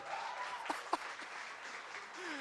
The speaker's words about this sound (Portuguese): Você pode aplaudir o rei, pode!